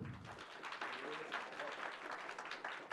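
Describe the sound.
A crowd applauds steadily, a dense wash of many overlapping hand claps at an even, sustained loudness for the whole stretch, with a brief low murmur of voice at the very start.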